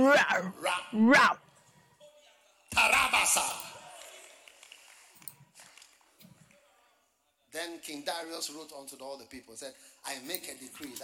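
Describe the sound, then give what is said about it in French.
A human voice imitates lions roaring and attacking: a few harsh growling bursts, a loud raspy roar, a quiet pause, then a longer run of snarling, guttural sounds, fairly loud. “et avant qu'ils fussent parvenus au fond de la fosse, les lions les saisirent et brisèrent tous quand ils sont arrivés, les lions ont fait”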